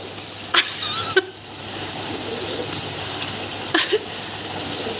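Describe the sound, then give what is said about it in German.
An evaporative air cooler, refilled with water and lemon juice, hums steadily while a few sharp, wet slurping gurgles pop out now and then as it draws up the water, fairly loud. “Irgendwie zieht er sich jetzt hier anscheinend das Wasser und schlürft es richtig aus.”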